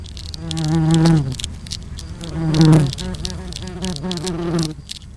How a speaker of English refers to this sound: Sometimes the only way to get a certain sound is to use a mic that is physically very small. I was able to record the inside of a wasp nest by using a DPA 4060 miniature condenser.